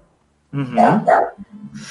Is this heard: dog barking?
yes